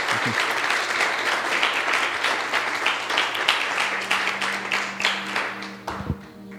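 A crowd claps steadily in sustained, dense applause as an offering of applause to the Lord, loud and continuous for several seconds, with a low steady hum underneath before it trails off near the end.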